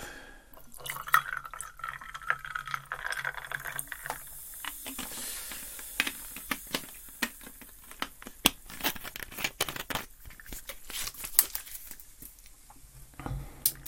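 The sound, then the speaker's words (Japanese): Tonic water being poured into a glass of gin to make a gin and tonic, a steady liquid stream followed by fizzing, crackling bubbles and scattered drips and clinks, with no talking. “ジントニック作って飲みながら雑談”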